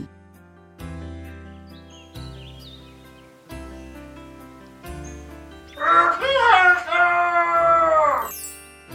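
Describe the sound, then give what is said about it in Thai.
A loud, drawn-out crow of a red rooster rings out for a couple of seconds, following a stretch of soft, slow low-pitched musical notes that keep playing quietly underneath. “เสียงขันของพ่อไก่แดงนั่นเอง”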